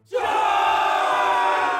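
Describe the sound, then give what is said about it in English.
A large, angry revolutionary crowd in Paris roars and shouts battle cries as it comes around a street corner, a loud, sustained wall of voices that surges in abruptly and holds steady. “As the crowd came around the corner,”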